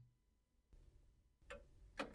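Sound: clock ticking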